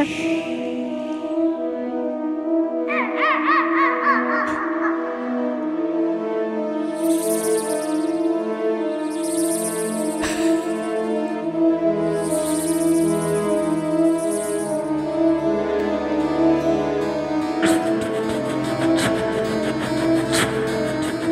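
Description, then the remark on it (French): A voice imitates animals and everyday objects, including gunshots, a rattlesnake, a locomotive, a horse and a harmonica. It mixes sustained humming and whistled tones with several sharp hissing bursts, continuous and fairly loud throughout. “vous imitez des animaux, vous imitez euh, des, des, objets de la vie quotidienne, enfin, une locomotive”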